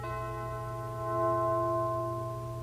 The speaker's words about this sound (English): Selected. Ding dong. Ding dong.